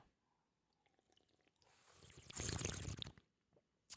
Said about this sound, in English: if the if the sound if the drinking and the slurping annoys you, I know it kind of annoys me too. Um, please let me know because I don't want to be that.